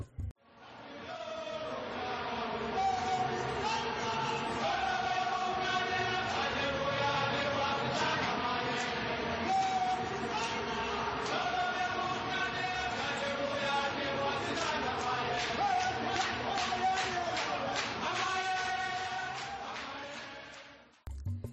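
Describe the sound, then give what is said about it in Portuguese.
A large crowd of South African football fans chants and sings together in unison, a loud, sustained, rhythmic wall of voices that holds steady for about twenty seconds. “Com sua cultura rica e surreal, fiquemos com um pouco desse grito marcante pela sabela torcida.”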